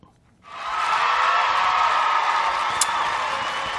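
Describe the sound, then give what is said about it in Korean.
After a brief quiet moment, a large crowd suddenly bursts into loud, sustained cheering, a dense roar of many voices that holds steady, with a short sharp high accent near the end. “이 관중들의 환호성이에요.”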